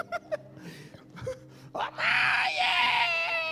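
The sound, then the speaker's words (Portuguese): After a few short vocal bursts, a voice launches into a loud, sustained, wavering wail, imitating a parrot living beside a house that mimics crying children, lasting about a second and a half. “Ele fica imitando as crianças chorando.”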